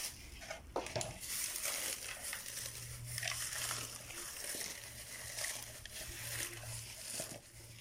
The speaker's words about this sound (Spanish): Estoy triturando cáscaras de huevo, que esas nos complementan el, abono que preparamos aquí con café, el residuo del café, la tierrita y eh, las cáscaras de huevo molidas.